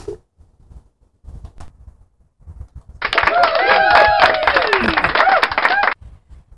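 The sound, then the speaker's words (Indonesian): A dense burst of hand clapping and applause kicks in sharply, holds steady and loud for about three seconds, then cuts off abruptly, with a few faint taps and clicks before it. “Tepuk tangan, tepuk tangan.”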